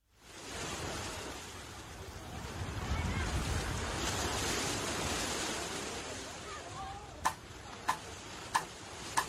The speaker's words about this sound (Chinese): 这一出来就是海浪的声音。